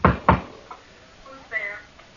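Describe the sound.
Two sharp knocks land in quick succession, a softer tap following, then a brief murmur of a voice after a short pause; the knocking opens a knock-knock joke.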